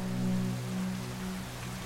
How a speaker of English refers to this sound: It would have been fun to watch if it weren't for the pouring rain.